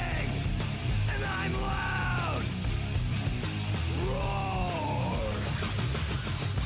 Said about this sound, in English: Like early 90s heavy metal hard. I'm yelling and screaming.